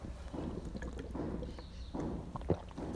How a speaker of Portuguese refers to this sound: Deixa eu beber água, gente, que a ressonância tá alta.